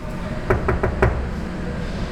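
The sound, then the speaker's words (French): A prison door lock clanks shut in a quick series of four sharp metallic clunks over a low steady background rumble with no voices. “porte verrouillée.”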